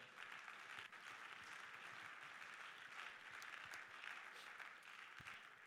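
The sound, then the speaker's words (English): An audience claps their hands to the Lord after a prayer, a dense, continuous wash of many hands clapping at once, sustained applause with no voices standing out. “In Jesus' name, would you clap your hands to the Lord tonight?”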